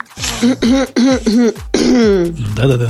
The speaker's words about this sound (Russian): ты обещаешь погромче покашлять в ответ?